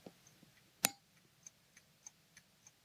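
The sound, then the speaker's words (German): An old mechanical alarm clock, just wound for the first time in 10 to 15 years, ticks steadily, its sharp clicks evenly spaced about every third of a second, with one louder knock near the start and no voices. “Vielleicht stelle ich mir mal wieder einen mechanischen Wecker an, auf den Nachttisch”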